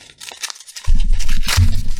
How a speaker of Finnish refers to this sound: Tämä on tölkki maalarin teipillä viimeisen päälle ekologisesti ja esteettisesti tapetoitu tuote. Ja nyt, nyt avataan tässä teippi.